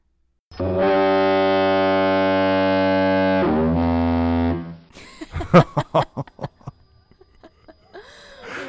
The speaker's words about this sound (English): I have a YouTube video. Um, it's the foghorn that's used at the light station.